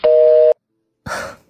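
A telephone busy tone sounds after a caller hangs up a phone call with the host: one loud, steady mid-pitched beep lasting about half a second, then a pause and a short, soft breathy burst. No one speaks.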